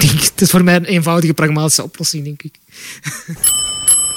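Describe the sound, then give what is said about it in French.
A bicycle bell rings bright and metallic near the end, a few quick strikes with a lingering shimmer, following a stretch of voiced, sing-song vocalizing. “Dring Dring, le podcast de … qui vous fait découvrir la Flandre à vélo.”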